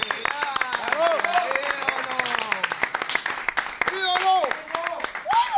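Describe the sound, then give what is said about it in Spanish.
An audience breaks into steady applause for a singer, dense overlapping claps running through the whole stretch, with voices calling out and talking over the clapping. “Un Una aplauso, casualidad.”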